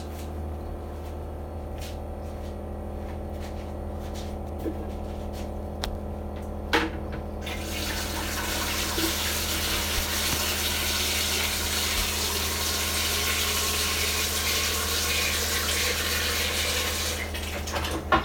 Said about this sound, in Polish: Nalałem wodę. To jeszcze nie jest pełen zbiornik, urządzenie już zaczęło wodę filtrować i jeszcze raz muszę dolać